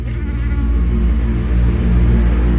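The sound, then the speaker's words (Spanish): An Anopheles gambiae mosquito, a malaria vector, buzzes loudly, a steady droning whine that holds without a break for the whole stretch, with no voices over it. “Su portador era uno de los vectores más peligrosos del mundo, el mosquito Anopheles gambier.”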